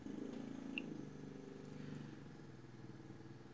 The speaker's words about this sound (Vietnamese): Sorry mọi người vì tiếng xe máy của hàng xóm nha. Người ta đang chở hoa Tết đi bán như sao đấy. Đằng phía view cửa sổ của tôi là một cái vườn ươm hoa Tết rất là rực rỡ luôn và bây giờ người ta đang đánh xe bà gác tới và chở hoa đi